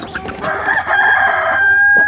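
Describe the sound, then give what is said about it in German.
A rooster coming out of a henhouse under a barn roof on a Sunday morning crows loudly, one long drawn-out cock-a-doodle-doo with a strained, wavering tone, holding its final note before cutting off. “Zuletzt der Hahn. Ja, ja, schrei du nur”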